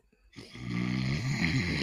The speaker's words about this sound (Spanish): Está roncando, ¿no?